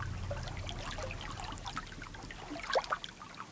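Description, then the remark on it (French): Calm North Atlantic sea water, recorded at sea aboard a trawler, rippling and lapping softly at the surface, a steady low rumble of gentle swell underneath, with a few small splashes and trickles standing out near the end. “La houle qui oscille doucement, l'eau qui frise à la surface.”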